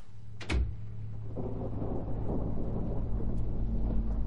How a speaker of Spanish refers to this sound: Ella cierra la puerta de su cuarto.